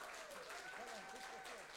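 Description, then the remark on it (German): A crowd applauds with dense, steady clapping that fills the whole moment, with a faint tonal whistle-like line and murmuring voices underneath. “Lass uns Ihnen nochmal trotzdem Applaus geben, auch wenn das, wenn ich weiß,”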